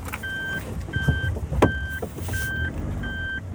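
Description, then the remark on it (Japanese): A car backs up on arriving home, with a steady series of five electronic reversing beeps, evenly spaced and fairly loud, over a low engine rumble and some light interior rustling. “ちょっとバックします”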